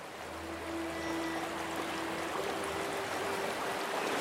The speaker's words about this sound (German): Er ist, er ist auch manchmal für mich ein Ziel, nur dort den Bach entlang gehen, weil das, ist ja, das Geräusch ist einfach sehr schön. Das ist Musik.